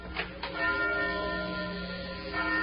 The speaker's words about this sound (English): look up through that belfry. That bell's ringing. But there ain't nobody down here pulling the bell rope.